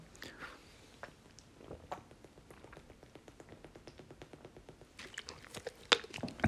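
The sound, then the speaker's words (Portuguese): Someone sips water, with quick, regular little gulping clicks and wet mouth sounds, followed by a couple of louder swallows near the end. “Deixem-me só dar aqui um golinho de água que eu tenho que me hidratar.”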